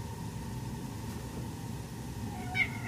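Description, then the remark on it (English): A house cat named Chloe lets out one short, high meow near the end, rising above a steady low rumbling hum like an idling engine that fills the background. “Chloe's uh, the house cat here, along with Taz.”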